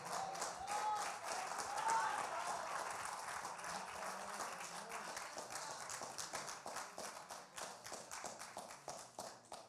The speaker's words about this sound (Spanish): O oh, si ese aplauso es para mí está bueno, pero sea para Dios de hacerlo con fuerza.